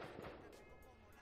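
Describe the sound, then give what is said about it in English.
Several muffled fireworks bangs pop outside at irregular intervals, heard faintly against a steady background hum. “I hope those are fireworks because I just watched Sicario and now I'm hearing bang bang.”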